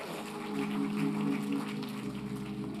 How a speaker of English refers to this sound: Let's give our young people another round of applause